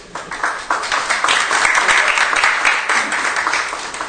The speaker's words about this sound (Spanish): Un aplauso para ellos.